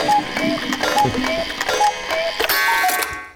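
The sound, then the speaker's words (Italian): A cuckoo clock calls over and over, its falling two-note chime repeating in a steady rhythm above whirring, clicking clockwork, with no one speaking. “Adesso prendo quel cucù e te lo ficco nel culo, eh!”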